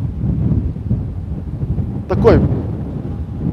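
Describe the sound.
Wind buffets a microphone with a steady, blustery low rumble that runs the whole time, and a man speaks briefly partway through.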